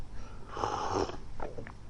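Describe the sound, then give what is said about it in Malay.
Soft, airy slurping as someone sips water in the sipping manner attributed to the Prophet, one longer drawn-in sip followed by a few short, quieter sips and faint swallowing sounds, with no talking. “Cara Nabi minum, dia sipping tuan-tuan eh. Sip”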